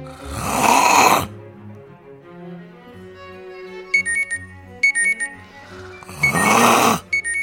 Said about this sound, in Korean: 30분 후 알람 멜로디